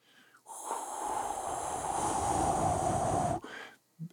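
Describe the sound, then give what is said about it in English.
A person imitates the whooshing rush of duck wings as ducks descend from the sky toward duck hunters, with a breathy, hissing voice: one sustained swoosh lasting about three seconds with a slightly falling tone, then a brief puff. “The, the winds only duck hunters know of when ducks are descending from the sky down to you.”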